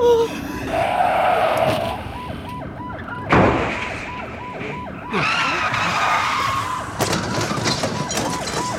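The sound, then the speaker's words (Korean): Car tires screech in loud skids and sudden crashing bursts, one after another, as cars pile up in a chain collision up ahead that blocks the road, while a siren cycles up and down steadily underneath throughout. “잠깐만 아, 저 앞에 연쇄 추돌 사고 나서 길이 꽉 막혔어요”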